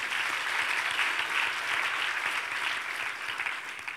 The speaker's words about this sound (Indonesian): Berikan tepuk tangan bagi Tuhan kita Yesus.